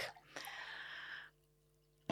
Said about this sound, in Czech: Uh, mě... nalít vodu? I... Jo, děkuju, děkuju.